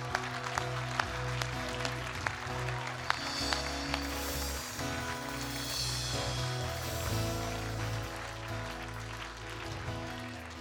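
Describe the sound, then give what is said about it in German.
An audience claps for Jesus steadily for about ten seconds, a dense, even wash of applause over sustained low organ or keyboard chords, with a few sharper claps standing out. “Vielleicht können wir mal einen Applaus geben für Jesus, der rettet”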